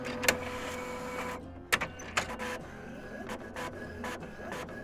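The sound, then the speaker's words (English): A printer runs, a steady mechanical whir punctuated by sharp clicks and several short rhythmic bursts as a sheet feeds through, with no voices. “A couple of seconds pass by, and a sheet of paper is set down in front of you by the snake.”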